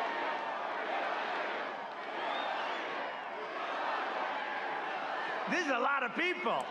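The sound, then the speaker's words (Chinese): A dense political rally crowd roars steadily, a wash of many overlapping voices, then near the end loud rhythmic chanting of "four more years, we love you" rises above it in a few repeated, sing-song bursts. “人们在大喊：“再干四年，我们爱你。”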